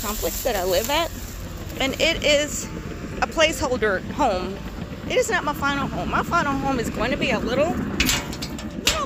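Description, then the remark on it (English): Construction work building new townhomes rumbles and clanks in the background, a steady mechanical din with occasional sharp knocks, while a person talks over it the whole time. “And you can hear the construction going on in the background.”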